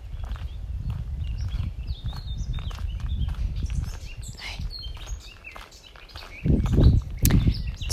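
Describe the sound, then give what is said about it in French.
Steady footsteps crunch along a path among very tall trees at a walking pace, fairly loud, with birds chirping and tweeting in the background; the steps grow heavier near the end. “En même temps que tu entends les pas sur le chemin, ressens ce que cela procure en toi.”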